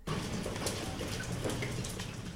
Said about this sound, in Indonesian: Coba teman-teman dengar hujannya sudah mulai turun.